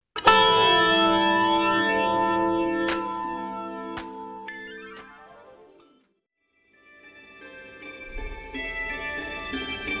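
A pop song plays on the radio show Sounds of PDX on prp.fm, with bright, heavily processed synth chords and swirling effects, fades into a brief silence partway through, then returns fuller with a deep bass underneath. No one speaks.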